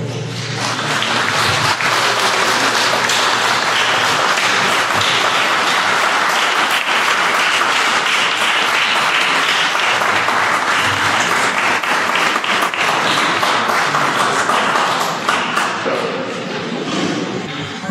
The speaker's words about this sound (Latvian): Un tad mēs redzam, ka nāk iekšā brīvprātīgie, kuri jau ir trīs mēnešus darbojušies Austrumu slimnīcas Latvijas autonomijas centrā svecītē. Mēs varam viņus sagaidīt ar aplausiem.